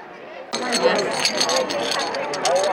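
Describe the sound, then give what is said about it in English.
Metal medals, four golds, two silvers and a bronze, clink and jingle together in quick, irregular bursts at a homecoming at Dublin Airport, over a busy background of crowd chatter and murmuring voices. “So that noise is medals.”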